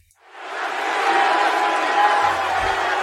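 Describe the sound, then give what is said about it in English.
A live wrestling crowd erupts in loud, sustained cheering for John Cena as he addresses them in the ring, swelling within the first half second and holding steady, a dense roar of many voices with scattered shouts and whoops. “It says, if Cena shows up, we cheer.”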